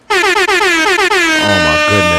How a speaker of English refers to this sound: Give him an air horn. Mo- you dropping mo bombs, please. Give, give him air horns. Give him air horns